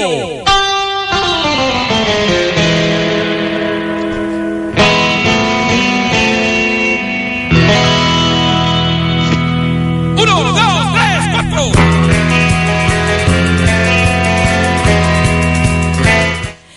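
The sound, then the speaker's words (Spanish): Film soundtrack music plays loudly and steadily, dense sustained chords shifting abruptly into new sections every few seconds, with no voices over it. “esto que estamos escuchando, banda mm. sonora de Los Campeones Justicieros”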